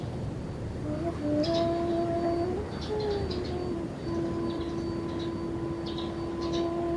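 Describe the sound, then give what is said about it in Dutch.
Faint seagull cries come in short bursts at the seaside among wind-blown dune grass, repeating irregularly over a steady wash of sea surf and a soft, sustained low drone. “Luister maar naar de roep van de meeuwen.”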